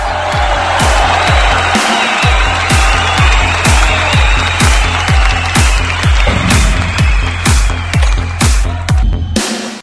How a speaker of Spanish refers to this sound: Como que no, también un fuerte aplauso.